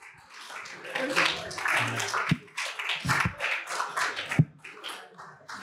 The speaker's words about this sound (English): Let's give another clap